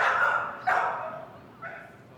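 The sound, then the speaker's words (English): A pit bull barks in three quick, slightly whiny bursts, fairly loud, with short gaps between each yelp. “There was a pit bull who greeted us enthusiastically each morning.”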